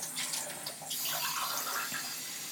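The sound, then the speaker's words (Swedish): Water pours steadily into a glass for a couple of seconds, a continuous trickling splash with a brief dip partway through, heard on its own without any talking. “Jag måste ta vatten.”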